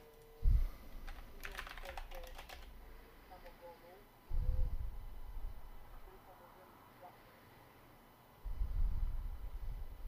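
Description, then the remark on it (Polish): Rapid clicking of keys on a computer keyboard, a short burst of keystrokes near the start, with a few dull low thumps and faint background noise around it. “Dobra, poczekaj, bo patrz, coś mianiaczek piszesz”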